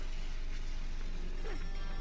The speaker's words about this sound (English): Oh, There's the dog.